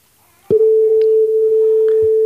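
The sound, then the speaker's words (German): A steady pure sine tone at concert pitch A begins abruptly and holds at constant loudness for about two seconds, with faint thumps and rustles in the background. “Testton? Das ist jener Kammerton tatsächlich.”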